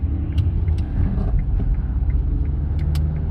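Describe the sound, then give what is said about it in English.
A car passes by on the road, a steady low engine rumble and tire noise that fills the whole moment, with a few faint clicks and ticks on top and no talking. “Maybe I'll just wait for this car so we don't hit each other.”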